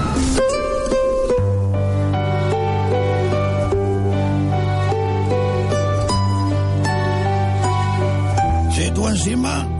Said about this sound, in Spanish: encima me pones esta cancioncita.